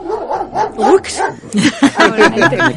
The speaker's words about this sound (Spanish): y dice que de pronto el perro se le levantó en el salón, empezó a ladrarle a la, mesa al lado.